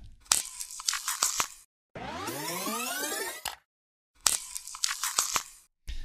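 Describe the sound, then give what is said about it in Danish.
Creaking, cracking joint sounds (crepitus, a joint giving off noise): bursts of gritty crackling, then a long drawn-out rising creak, then another run of sharp crackles, loud with no talking. “med et fagterm, så hedder det krebitus. Og det betyder bare, at, øh, at ledet det ligesom giver lyd fra sig. Det er sådan lidt knirkende, sådan knækkende”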